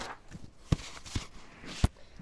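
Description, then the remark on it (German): A page being turned: soft paper rustling with three short, crisp flicks and dull thumps spaced unevenly over about two seconds, fairly quiet, with no one speaking. “Jetzt müssen wir umblättern.”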